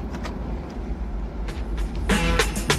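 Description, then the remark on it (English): Steady low engine rumble of a limousine cruising along on a drive from the airport to Nakatomi Plaza, heard from inside, with a few brief whooshing swells and soft knocks toward the end. “we hear it just briefly during John's limo drive from the airport to Nakatomi Plaza.”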